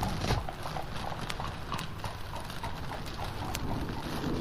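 Horse hooves clip-clop steadily on hard ground as horses pull a cart out of a yard, a continuous rhythmic trotting that carries through the whole stretch, with a faint bird call or two in the background.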